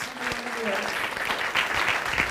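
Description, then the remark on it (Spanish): An audience applauds the "King of Kings and Lord of Lords", breaking into steady, dense applause, many hands clapping at once in a continuous, fairly loud wash of sound with a few faint tonal notes underneath. “Si usted lo cree, déle ese fuerte aplauso al Rey de Reyes y Señor de señores.”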